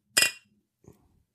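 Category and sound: household object, beer glasses clinking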